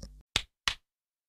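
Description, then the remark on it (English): Two sharp, bright hand claps ring out about a third of a second apart, each decaying quickly, after a short low hum at the start. No voices are heard. “Is that a good clap?”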